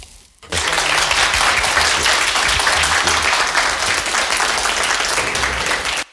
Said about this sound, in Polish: Czas na oklaski.